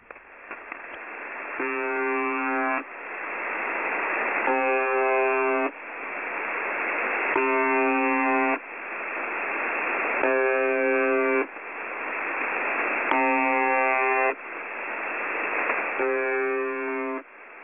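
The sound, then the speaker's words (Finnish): Radio buzzing from a numbers station: steady band-limited static broken by a harsh, low droning buzz that sounds for about a second roughly every three seconds, repeating six times with no voices. “Valitettavasti tähän dokumenttiin emme kuitenkaan saaneet nauhoitettua yhtäkään viestiä, vaan pelkkää pärinää.”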